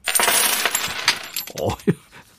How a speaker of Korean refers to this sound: 엄청 동전이 대박이 나게 떨어지네요.